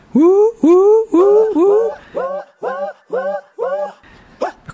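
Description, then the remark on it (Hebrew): A voice makes a run of odd, short rising vocal yelps in a steady percussive rhythm, about nine in a row, the first few louder, the rest a little softer; recorded in a song's chorus as background percussion. “כל מיני קולות מוזרים כאלה שנמצאים שם ברקע, והם בעצם סוג של כלי הקשה.”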